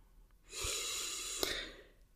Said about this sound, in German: Vielleicht magst du dir einen kurzen Moment nehmen, wo du jetzt sitzt, stehst, wenn du gehst, vielleicht kannst du kurz stehen bleiben, dir einfach ein paar tiefe, tiefe Atemzüge schenken.